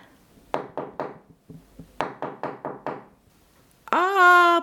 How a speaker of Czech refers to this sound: Je, je, podívejte, zrovna jde. Je, a jak úctivě klepe na dveře.